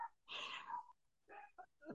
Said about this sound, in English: I'm sorry, my dogs are barking.